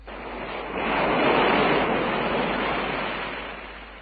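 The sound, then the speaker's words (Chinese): Waves crash against rocks on the Kunohama coast, Fukuoka Prefecture, Japan, spray flying, in one long rushing roar that swells within the first second, holds a loud hissing spray, then slowly ebbs away, with no voices. “波浪拍击着岩石，浪花飞溅。”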